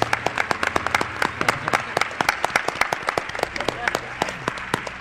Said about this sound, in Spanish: Un aplauso para una de las almas de Milenio 3.